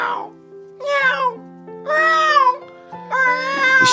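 A cat meows frantically in several loud, drawn-out, high-pitched wails in quick succession, each rising and falling, with a low steady hum running underneath; the cat starts crying as soon as a driver begins reciting a poem by Yun Dong-ju.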